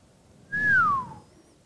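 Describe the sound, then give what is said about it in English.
A single human whistle, a clear tone sliding downward over about half a second, loud, with no speech around it. “That's a nice whistle.”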